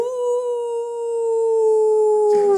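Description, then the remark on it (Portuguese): A person imitates a wolf howl, one long, steady, loud wail held for about two seconds before breaking off abruptly at the end. “Uiva pra nós aí”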